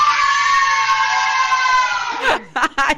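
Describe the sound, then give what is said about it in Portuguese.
A group of children eating popsicles at Big Bom shouts together on cue in one long, loud, high-pitched cheer lasting about two seconds, then it breaks off into a few short excited voices and bursts of chatter. “Desculpa aí os ouvintes pelo grito, mas é só para passar energia para vocês.”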